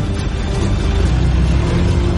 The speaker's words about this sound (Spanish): Arranca. Conduce en dirección opuesta.